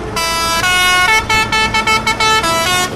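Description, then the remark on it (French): Loud, repeated honking from large vehicle horns, long blasts broken by short staccato bursts, over a steady rumble of engines and traffic, as young farmers drive a tractor convoy along a four-lane highway in a slow-moving protest, with kilometres of cars and trucks waiting behind. “monte dans le tracteur et le membre des jeunes agriculteurs organise tout un convoi sur la 4 voies.”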